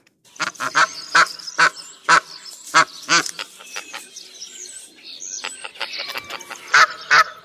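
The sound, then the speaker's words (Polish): Barnacle geese give a rapid series of sharp, yelping honks, several birds calling over one another in bursts, loud, with no talking. “To już gęś bernikla, drodzy Państwo.”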